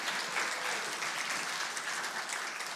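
A crowd claps steadily in sustained applause, a dense patter of many hands at an even level throughout, heard from within a large room.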